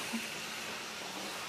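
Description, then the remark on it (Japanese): A soft, steady hiss of air being drawn into a cow's abdominal cavity through a hole just opened in the peritoneum, as the inside of the abdomen is under negative pressure; continuous and fairly faint throughout, with no voices over it. “今プシューって言ってますけどなこれははい、あの腹お腹の中って陰圧になってます、はい、で、えー腹膜を開けてやるとそこに空気が入っていく”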